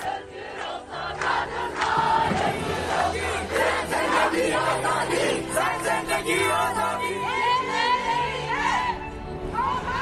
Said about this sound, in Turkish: Bu hafta gündemimize laiklik ve özgürlük mitinginden seslerle başlayacağız.